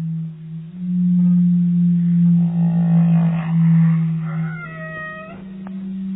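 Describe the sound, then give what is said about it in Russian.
A long, low whale moan drones steadily for several seconds, joined by higher wavering, creaking tones that rise and fall. Loud, with no voices. “Получаются такие какофония стонов, завываний, скрипов, которые служат по разным версиям для того, чтобы привлечь самок, либо дать сигнал каким-то своим соплеменникам о том, что вот здесь еда, или просто обозначить свое присутствие в этом районе.”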